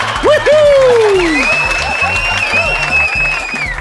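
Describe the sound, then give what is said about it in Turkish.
A crowd applauds loudly and steadily, with whistles and scattered cheers rising over the clapping throughout. “Bütün kesimhanede karkas halinde yenmeyi bekleyen kuzular için büyük bir alkış rica edebilir miyim lütfen?”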